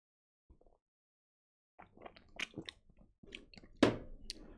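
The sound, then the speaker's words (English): Quiet mouth sounds of someone sipping a drink: a faint lip click, then a run of wet slurps and swallows, with a louder gulp near the end. “Gotta take a little sip of this real quick.”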